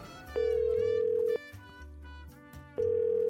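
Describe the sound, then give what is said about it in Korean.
A phone ringback tone repeats unanswered as someone calls the owner of a double-parked car: a steady, mid-pitched one-second tone, a long pause, then the tone again, over soft music playing underneath. “아, 이 사람 왜 이렇게 전화를 안 받아.”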